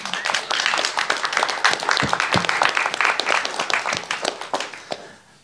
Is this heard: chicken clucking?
no